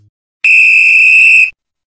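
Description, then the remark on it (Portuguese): A random horn sound effect: one loud, steady, high-pitched blast with a bright buzzy tone, holding for about a second before cutting off abruptly, with silence around it. “Vou começar por você, que você estava querendo falar antes da corneta aleatória.”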